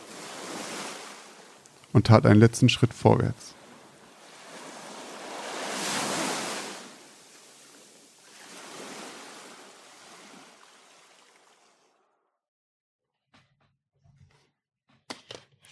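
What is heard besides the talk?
ocean waves crashing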